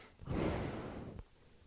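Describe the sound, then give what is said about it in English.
A breathy rush of air blown straight into the microphone, a broad whooshing exhale lasting about a second before cutting off, with no talking. “And I keep breathing into the.”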